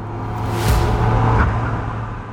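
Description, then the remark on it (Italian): A convertible car's engine roars steadily as the car speeds past, with a brief rushing swell of road and wind noise. No voices are heard. “Mentre correvo, con il vento sulla faccia, ovviamente avevo una macchina decappottabile,”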